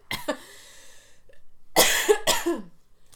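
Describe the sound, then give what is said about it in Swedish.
A coughing fit after drinking water that went down the wrong way: three harsh, raspy coughs in an uneven burst, the first followed by a long wheezy tail, the last two loud and close together. “Nu är det rökhosta, eller vad heter det?”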